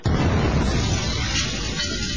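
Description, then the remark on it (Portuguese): A pen cap falling on the floor, hugely amplified with Áudio Power so it lands as a loud, explosion-like boom with a deep rumbling tail that fills about two seconds. No one speaks. “Agora ouça a tampinha com áudio power”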